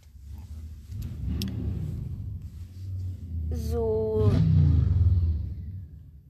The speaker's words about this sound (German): ähm, das war ein Motorrad, das gerade vorbeigefahren ist, weil ich, ihr müsst wissen, ich sitze gerade im Auto.